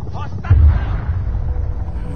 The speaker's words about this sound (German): Und der Mann zielt auf diesen Helikopter. Er mhm. schießt daneben erneut und dann beim dritten Mal trifft er. Der Helikopter beginnt zu brennen und stürzt ab.